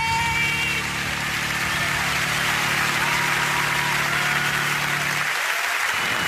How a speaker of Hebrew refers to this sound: כפיים בכפיים.